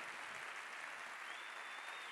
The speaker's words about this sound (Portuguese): Você pode aplaudir mais forte ou não?